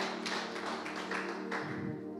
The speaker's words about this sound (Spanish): aplaude si van a aplaudir, ayúdame.